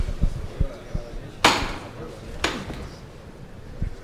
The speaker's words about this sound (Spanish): ahora sí se toca el martillo para levantar el paso.